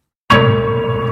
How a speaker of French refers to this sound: On a ici le son qui s'appelle marteau, qui fait partie des banques phonophones. C'est un son de type attaque-résonance, comme une note de piano.